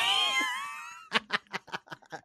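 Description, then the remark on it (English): A cat named Kitty lets out one long, loud, drawn-out meow, falling slightly in pitch, followed by a quick run of about six short, breathy bursts like laughter. “Kitty's yelling at me, guys.”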